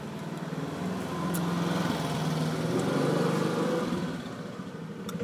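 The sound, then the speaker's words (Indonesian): A small Honda Beat motor scooter engine putters steadily at night as a courier delivers a package, its buzzy drone swelling louder and slightly higher midway before easing back down, with no talking over it. “waduh paket siapa nih malam-malam beat nih anjing beat, beat, nih beat nih beat nih”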